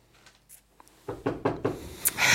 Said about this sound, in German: Hört man das Klopfen? Ich klopfe. Klopf, klopf, klopf.